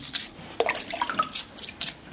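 A lucky stone, just polished with aluminium oxide on a felt wheel, is cleaned with a toothbrush: short, hissy bristle strokes in uneven bursts, mixed with wet splashy drips and small gurgles of water, with no talking.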